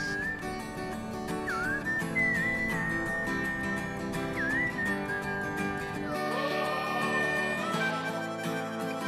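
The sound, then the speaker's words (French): A bright whistled melody with little pitch swoops rides over a full, steady music backing as a song begins. The bass drops out briefly near the end, and no one speaks. “Oh oh oh, j'entends quelqu'un siffler”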